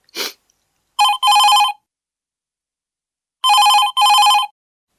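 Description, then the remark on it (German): A telephone rings twice, each ring a pair of quick electronic trills with a pause between, loud, preceded by a brief soft rustle. No one speaks. “Das Klingeln eines Telefons riss alle aus ihren Gedanken.”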